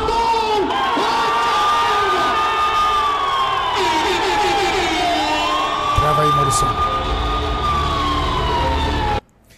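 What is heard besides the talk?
audience screaming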